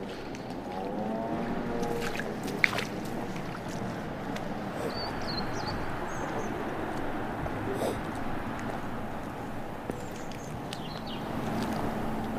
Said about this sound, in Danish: det er nok en rødhals, der sidder og synger, tror jeg, men de kan godt nogle gange lyde sådan lidt som krone. Ja, der sidder en rødhals derhenne i det fjerneste træ nederst til højre.